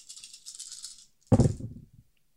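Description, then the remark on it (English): Dice rattle in a cup for about a second with a bright, shaking clatter as a player re-rolls all the dice in a game, then spill out with a louder thud and a few quick tumbling clicks as they settle. “Okay, so you re-roll everything.”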